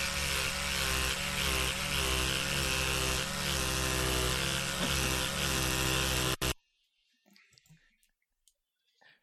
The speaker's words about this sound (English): Sounds like me when I'm having yeah. a shave. it's electric toothbrush.